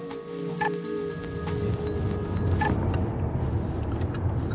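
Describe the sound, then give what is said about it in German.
A car engine hums low and steady as the car is driven slowly uphill on a narrow, freshly asphalted road in the Odenwald, with faint creaks and brief whistling tones early on and continuous road rumble throughout. “Ich lenke den Wagen auf einer schmalen, aber frisch asphaltierten Straße im Odenwald langsam den Berg hinauf.”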